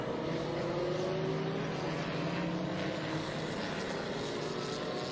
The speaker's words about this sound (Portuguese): E aí a gente vai vendo os carros já passando num ritmo mais lento com essa bandeira amarela.